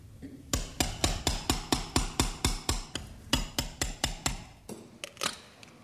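A mallet drives a two-centimetre Lambotte surgical chisel into bone during a hip operation, with a steady run of sharp, ringing metallic blows, about four per second. After a short break come a few looser, irregular taps. No voices.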